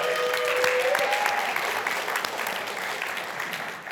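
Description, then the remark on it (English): A crowd claps steadily in a dense, even patter of many hands, applauding a couple who just celebrated 26 years of marriage. The applause is sustained throughout and slowly tapers off toward the end, with a brief high whistle near the start. “Can we give them a round of applause for that?”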